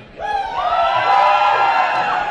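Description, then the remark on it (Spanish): A crowd of students shouting together outdoors on the esplanade of the CCH Vallejo school, a sustained collective yell that swells in after a brief quiet moment and holds steady, echoing across an open space. “Estamos en medio de la explanada del CCH Vallejo y para demostrárselos vamos a pedirles que griten a todas las personas que están allá afuera.”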